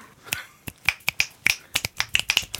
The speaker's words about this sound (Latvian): Un knipļus sist protat?